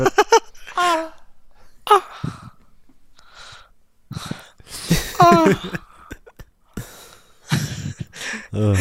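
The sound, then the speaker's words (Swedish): A loud, drawn-out yawn with a groaning voiced tone, surrounded by several breathy gasps and exhalations, with no clear speech. “När man gäspar så skönt så att man kommer.”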